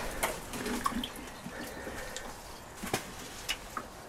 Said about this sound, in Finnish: Sadevettä, kan. Noin. Tulee nuo varaston kattovedet, kattovedet myöskin tässä hyödynnettyä ja se on siinä auringossa vähän lämmennytkin. Tomaatille vettä.